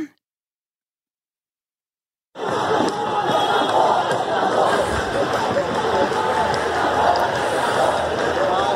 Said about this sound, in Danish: Det her, det her det er lyden af demonstranter på gaden i, i New Delhi. Øhm, og den er fra en af de mange videoer, øhm, som er kommet ud fra Indien.